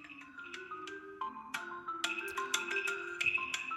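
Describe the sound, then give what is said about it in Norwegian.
Bright, bouncy mobile game music with a jungle feel plays through a small phone speaker: plucky melodic notes over steady percussive taps, fairly quiet and tinny, with no talking. “Og så bare tenkte jeg at musikken på det spillet Nå skal dere få høre det, for det er litt sånn artig.”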